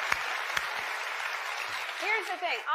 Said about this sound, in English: And, um... Applause sign!